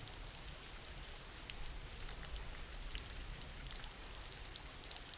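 Steady rain falls continuously, a dense hiss of countless drops pattering on a surface, with no voices and a fairly even loudness throughout.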